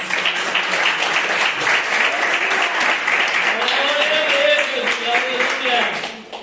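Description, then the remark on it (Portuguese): An audience applauds steadily in worship of the Lord Jesus, a dense, continuous wash of many hands clapping at an even loudness, with voices calling out faintly beneath it before the clapping tapers at the end. “Essa palavra Deus colocou no meu coração e as palmas que adorem ao Senhor Jesus.”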